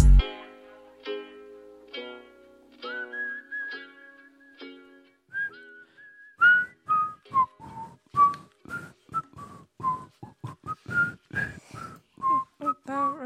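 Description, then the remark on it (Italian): Someone whistles a bouncy tune, opening with a few held notes before switching to quick, rhythmic, high-pitched phrases that come through fairly loud and clear. “Senti come fischietto bene.”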